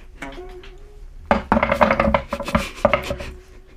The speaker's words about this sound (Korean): 이번엔 공주님이 선이여 먼저 뱀주사이를 굴리시오. 기꺼이 그러지요.